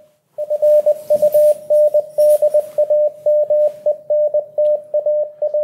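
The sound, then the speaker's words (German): A steady, loud Morse code tone keys on and off in rapid dots and dashes, a single high beep repeating in rhythmic bursts over faint radio static, with no voices; a radio signal sent by Norwegians from their ship toward Bergen. “Das waren wie gesagt Morsezeichen, denn damals konnte man das auch noch nicht anders.”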